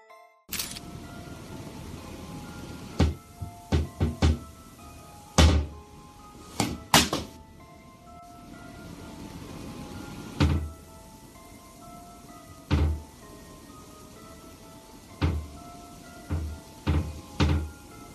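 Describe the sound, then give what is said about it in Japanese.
Sharp wooden knocks and thumps sound from inside a cupboard where a doll has been stored, in scattered clusters, followed by the creak and clunk of the cupboard door coming open, all over a steady background hiss. No one speaks. “棚を中から叩くような音がした後、扉が開いてしまったんだ。”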